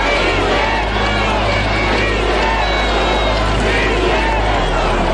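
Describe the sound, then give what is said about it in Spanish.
A huge crowd of about 130,000 people roars and chants "presidente, presidente" together in a dense, continuous wall of voices, loud, with rising waves of shouting layered over a steady low rumble. “De pronto, otra oleada de gritos se escuchó. Los 130 mil asistentes coreaban, presidente, presidente.”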